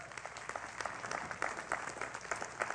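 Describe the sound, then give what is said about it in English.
An audience applauds the Lord at a morning church service with a steady, dense patter of many hands clapping, sustained for a few seconds, with no voices standing out. “Come on, give the Lord a good hand this morning.”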